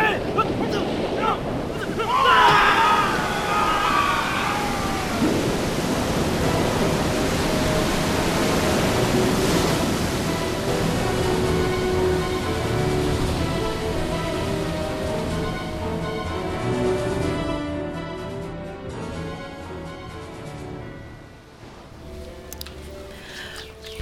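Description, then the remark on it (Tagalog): A huge ocean wave crashes and roars as it approaches, a loud, sustained rush of churning water and wind that swells early on, then slowly settles while a steady tonal hum lingers underneath. “Papunta sa ating kulga ang paparating na malaking alon.”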